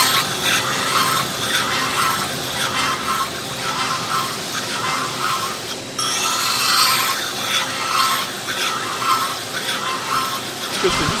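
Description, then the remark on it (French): The rim of a drinking glass being ground flat on a spinning wheel, removing the small ridge on the glass. A steady, harsh, hissing scrape that swells and eases in a loose rhythm, loud and continuous throughout. “Je suis en train de fléter les verres, donc sur la platine.”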